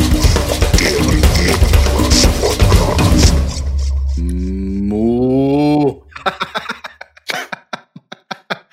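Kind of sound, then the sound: animal, cow mooing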